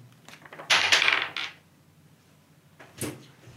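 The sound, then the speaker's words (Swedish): Dice clatter and tumble across a hard tabletop in a loud burst lasting under a second as two players roll dice against each other in a game, then a second, shorter rattle follows after a pause. No one speaks. “då måste ni båda slå tärning mot varandra på grund han vet om att du är där nu.”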